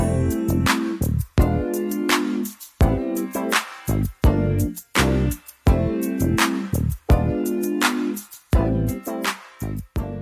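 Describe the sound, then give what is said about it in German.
A 1980s soul song plays with no talking: a looping groove of punchy bass and drum hits, bright chords and horn-like stabs, repeating in a steady rhythm at full volume. “Kommen wir nun zum Sample der heutigen Ausgabe und das hört sich so an.”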